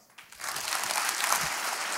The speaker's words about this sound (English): Go ahead and clap your hands.